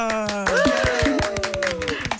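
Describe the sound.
A short burst of steady applause, quick sharp claps in an even rhythm, with raised voices calling out over the top throughout.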